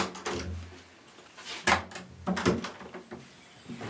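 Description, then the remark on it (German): A door is unlocked with two keys: a few sharp metallic clicks and clunks spaced over several seconds, the loudest pair near the middle and end, with faint rattling between and no talking. “Da brauche ich die zwei Schlüssel. Die muss ich aufschwören.”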